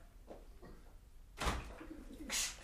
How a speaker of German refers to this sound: Die äh, Tauben haben sich gerade vor der Tür geprügelt und das ist alles sonst auf Ton nachher mit drauf. Das geht so nicht.